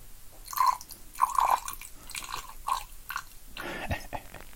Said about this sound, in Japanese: 天井にね、あの、雨粒が落ちてる音ですね。じゃあ雨降ってんだよね、今。外が。で、多分ね、電線からポタッポタって落ちるやつが、あのね、ポリカーボネートのね、天井にペタンペタンってなって結構な音がする。